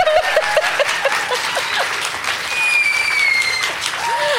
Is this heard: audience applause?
yes